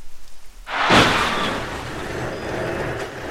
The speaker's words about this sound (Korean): 거친 마찰음이 들려왔다. 그리곤 폭탄이 터진 듯한 충격음이 이어졌다.